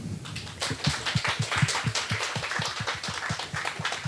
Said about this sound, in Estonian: aga aplaus kõigile.